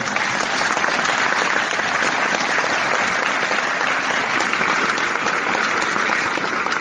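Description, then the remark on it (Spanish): Steady, dense applause from many hands, a continuous crackling clatter that holds at an even loudness for about seven seconds with no voices over it. “Un aplauso para esa gesta.”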